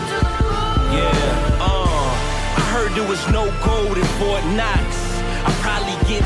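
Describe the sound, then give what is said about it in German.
A hip-hop track with a steady, punchy beat and deep bass under a looping sampled melody with vocal-like swoops, played loud, with a rapper rapping over the sample. “Und … hat noch das getan, was ein Rapper tut, drüber gerappt.”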